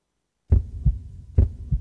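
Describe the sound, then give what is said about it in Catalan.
A heartbeat sound effect for the Federació Catalana de Futbol campaign "Tots som un batec": two deep, booming lub-dub thumps in a steady rhythm, loud, low and resonant with no voices. “Tots som un batec és la nova campanya de la Federació Catalana de Futbol, juntament amb Leo Messi, per cardioprotegir tots els camps de futbol, pavellons i pistes de futbol sala de Catalunya.”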